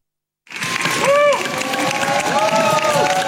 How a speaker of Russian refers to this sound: На акцию протеста пришли не только медики, но и пациенты. За поддержку собравшиеся их поблагодарили аплодисментами